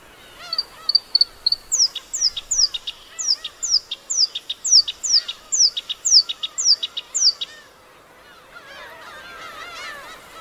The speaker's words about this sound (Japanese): 青く澄んだ日本海海からの風に揺れる草原でさえずるこよしきりその声は島の風景に溶け込むように流れていきました